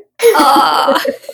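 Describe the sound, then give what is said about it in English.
A dog named Lenny, in the background, lets out a single drawn-out, high-pitched whimpering whine lasting about a second, wavering slightly before trailing off into softer breathy sounds. “um, just to explain, that was the dog in the background.”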